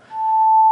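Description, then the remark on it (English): A steady, pure sine tone sounds alone for just over half a second at a constant mid-high pitch, one octave above A, then stops abruptly with a faint click. “Let's multiply it by two.”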